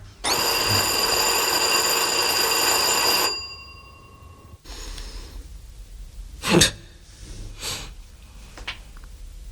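doorbell ringing

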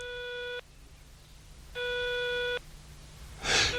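telephone ringing tone

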